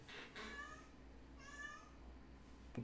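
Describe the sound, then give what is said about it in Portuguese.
A cat meows twice, two drawn-out, tonal cries about a second apart, fairly soft against a low steady background hum, with no one talking. “Gato miando.”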